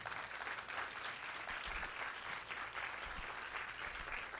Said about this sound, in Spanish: Alguien le da un aplauso al Señor que lo crea.